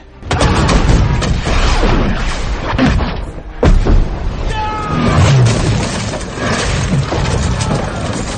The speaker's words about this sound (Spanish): Un soberbio estallido, provocado por la mecha, la pólvora y por todas las endiabladas cosas que metimos en la pieza, nos cegó por unos instantes provocando un sonido infernal.